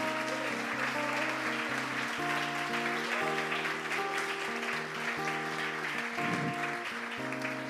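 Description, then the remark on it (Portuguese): An audience claps steadily for several seconds, a dense, even patter of hands layered over sustained keyboard or organ chords that shift in pitch underneath. “Segundo, pode aplaudir então, pode aplaudir mesmo.”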